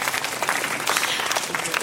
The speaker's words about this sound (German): Vor sechs Tagen haben Sie Ihren 80. Geburtstag gefeiert. Dürfen Sie eigentlich nochmal klatschen, oder? Ein Geburtstagsklatschen.